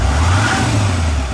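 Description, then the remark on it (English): The Cummins V8 turbo diesel engine of a 2016 Nissan Titan XD pickup truck, rated at 310 horsepower, revs up loudly, a deep steady rumble with a brief rise in pitch, no voices over it. “This is the sound of the Titan flexing its 310 horsepower muscle”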